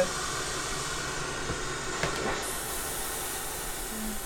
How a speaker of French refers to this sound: neiges de la, neige de la télévision ou des radios